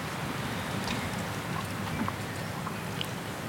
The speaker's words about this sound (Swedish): Vinden har inte mojnat utan snarare kommer den i, mitt mer, i lite mer jämna stötar.